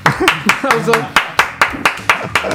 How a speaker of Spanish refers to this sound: Aplausos. ¡Bravo!